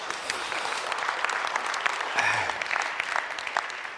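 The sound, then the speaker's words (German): An audience applauds steadily for about four seconds, a dense, even patter of many hands clapping at moderate volume, with a brief voice faintly audible partway through. “Sehr gut, niemand gratuliert euch oder klatscht, das ist erstaunlich.”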